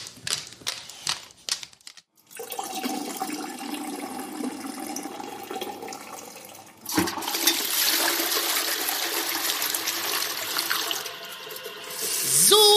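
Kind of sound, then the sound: household object, toilet flushing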